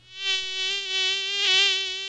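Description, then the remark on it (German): A mosquito's high, thin whine drones steadily, wavering slightly in loudness as it hovers, with no voices present. “Sie sind winzig klein und greifen meist nachts an. Mücken.”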